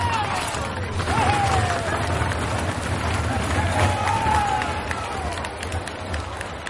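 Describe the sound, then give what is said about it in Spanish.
A dense, steady roar of a large outdoor crowd at a Holy Week procession in Lorca, Spain, devotees of the White and the Blue cheering and shouting vivas, with individual cries rising briefly above the babble, loud throughout. “sonidos que se unen a los gritos y a la pasión de la gente, porque no se podría entender la Semana Santa de Lorca sin los vivas y sin los originalísimos gritos de los devotos blancos y los azules cuando recoge su bandera o cuando ven pasar”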